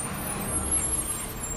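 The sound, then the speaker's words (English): A bus idles with a deep, steady engine rumble under a broad hiss of air brakes, fairly loud throughout the short moment, with no voices. “I packed up my things and took the bus back home.”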